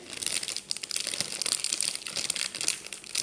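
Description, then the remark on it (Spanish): A potato chip bag is turned and crinkled slowly and steadily, a continuous rustle of crisp plastic with small irregular crackles throughout, no voices. “Y mientras más lento, más pajugo, pues se escuche”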